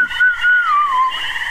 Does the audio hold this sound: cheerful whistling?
yes